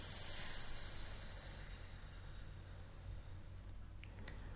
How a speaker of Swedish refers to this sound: Och nu menar jag för lyssnare att man inte ska dra upp liksom, axlarna eller bröstkorgen och sådär. Så att det är magen som styr det. Mm. Så tänk att det är liksom, det här som styr hela tiden. Och sen andas in.